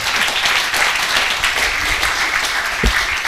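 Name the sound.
audience applause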